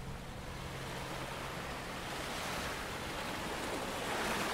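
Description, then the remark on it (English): Ocean waves wash onto a beach on the Atlantic coast in a steady, broad roar of surf that swells slightly toward the end, with a hint of wind and no voices. “It was my first vacation on the Atlantic coast with my cousins.”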